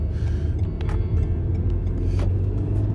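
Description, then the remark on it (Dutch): A slow Volkswagen car rumbles steadily, its low engine drone constant as it rolls slowly past, with faint road noise and no talking. “wat een slome Volkswagen.”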